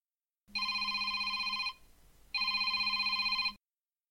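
A mobile phone rings in two long electronic bursts separated by a short pause, bright and steady, close by with no one talking.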